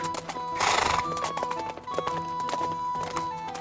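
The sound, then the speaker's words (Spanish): A horse gallops from a hill with tall grass toward a forest to the southeast, its hooves striking in a quick, steady drumming rhythm, with a loud breathy snort or whinny near the start. No one speaks. “Hacia el sudeste divisé el bosque. Galopé hacia allí.”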